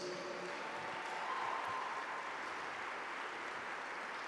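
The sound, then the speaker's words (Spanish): An audience applauding together for Jesus, a steady, dense wash of many hands clapping that holds at an even, fairly loud level throughout, with no voices standing out. “Dale un fuerte aplauso a Jesús.”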